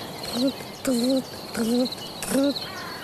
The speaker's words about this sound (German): Das sind Feldgrillen. Das sind keine Vögel.